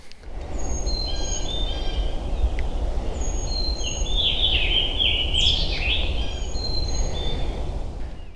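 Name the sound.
black-throated green warbler song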